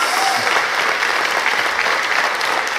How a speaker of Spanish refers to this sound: Ah, si van a aplaudir, aplauda.